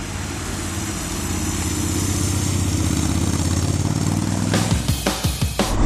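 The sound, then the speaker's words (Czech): A motorcycle engine runs with a steady, throaty rumble that builds in loudness, then revs sharply several times in quick bursts as the bike pulls away for a short ride in weather around or below freezing after heavy snowfall, with the Rain riding mode selected. No one speaks. “Ty, ale mě to nedá. Já se půjdu svést. Aspoň kousek.”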